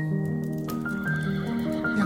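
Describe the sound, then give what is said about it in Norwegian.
A horse, the last horse in the town, neighs loudly, one long whinny with a wavering, shifting pitch that carries on for about two seconds, with no talking. “Det er den siste hesten i hele vår by.”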